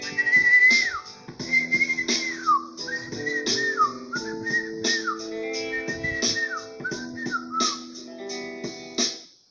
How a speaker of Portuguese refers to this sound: De repente, os passarinhos começaram a aparecer de todos os locais, bentivis, pardais, cantando.